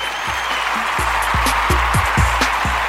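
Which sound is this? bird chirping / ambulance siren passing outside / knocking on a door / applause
applause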